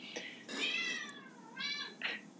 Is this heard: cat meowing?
yes